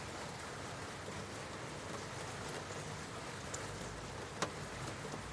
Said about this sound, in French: Je vais donc vous laisser écouter cette eau couler et vous plonger dans cet état de sommeil profond.